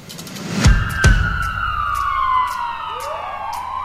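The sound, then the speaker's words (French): Emergency vehicle sirens wail outside, their overlapping tones sweeping up and down steadily. Two dull low thumps sound early on, and nobody speaks. “Avec des sirènes, c'est bien, ça donne une ambiance law and order.”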